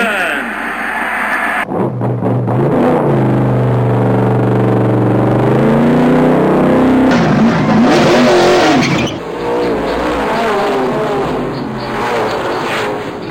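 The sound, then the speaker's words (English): A race car engine cranks and fires, then revs hard in rising, sweeping bursts, loud, settling into a steady roar with another surge of revving near the end. “Start your engine.”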